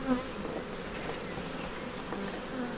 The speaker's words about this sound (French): Donc ici, c'est une ruche de production qui est destinée à faire du miel. Et c'est quoi comme espèce C'est euh, la caucasienne. C'est une abeille qui est rustique.